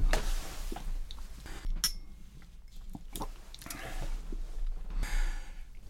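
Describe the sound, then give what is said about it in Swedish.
Soft clinks of a glass of rum being handled, mixed with breathy sipping and a quiet exhale, with no one talking. “Men nu är det kanske bäst att jag tar en klunk rom så att jag inte blir grönare än gräset som Sappho skriver.”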